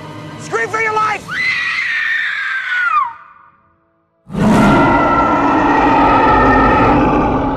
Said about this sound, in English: And then, you know, King Kong roars after she screams for her life.